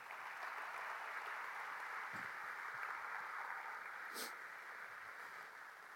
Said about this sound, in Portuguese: Se você está comigo, dê um aplauso ao Senhor Jesus nessa manhã.